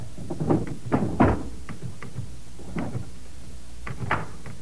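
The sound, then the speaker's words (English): A desk drawer holding last month's reports slides open and shut, with a series of wooden scrapes and knocks spread over a few seconds, and no one speaking. “Uh, they're in this drawer.”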